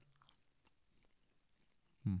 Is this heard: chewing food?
yes